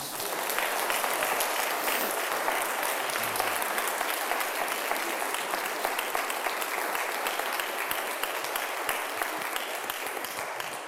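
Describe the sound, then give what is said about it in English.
An audience at Emmanuel Baptist Church in Raleigh, North Carolina, applauds an ordination to the gospel ministry, steadily for about eleven seconds, a dense, even wash of many hands clapping at a constant loud level with no voices standing out. “Should you give these folks a round of applause, please?”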